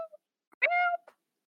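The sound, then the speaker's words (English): A person makes a single short, high-pitched squeak, imitating a mouse. The squeak lasts under half a second, with faint clicks just before and after it and otherwise quiet surroundings. “Is that your mouse noise?”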